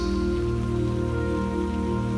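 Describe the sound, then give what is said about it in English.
Steady rain patters continuously on a hard surface, a dense even hiss of drops, with a soft sustained musical tone humming underneath and no voices. “Letting it all go with the rain flowing down your body.”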